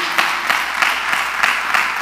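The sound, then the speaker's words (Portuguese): An audience applauds steadily, a dense hiss of many hands with regular stronger beats roughly three times a second, fairly loud and with no voices over it. “Dá um aplauso aí.”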